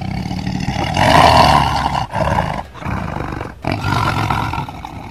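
A lion roars loudly, a deep rumbling roar broken into three long bursts with brief pauses between them. No voices are heard.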